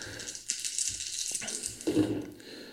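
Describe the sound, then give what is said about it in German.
Dice rattle and clatter across a surface, rolled to break an initiative tie in a Star Wars tabletop starfighter game, a dry, clicky jumble of small knocks with a few sharper hits along the way. No one speaks. “In solchen Fällen entscheidet das Würfelglück. Das heißt, wir würfeln jetzt nochmal.”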